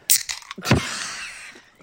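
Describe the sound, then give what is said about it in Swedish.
A can of Coca-Cola Zero is cracked open: a sharp metallic click, then a louder pop of the tab followed by a brief fizzing hiss that fades, with no one speaking. “Nu ska jag öppna en bira.”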